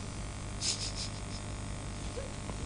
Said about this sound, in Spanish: Eh, ahí el, grillo.